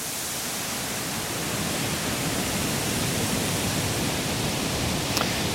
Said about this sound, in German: Ja, ich glaube, es ist wieder windig gerade. Windig. Klingt wie Wind auch.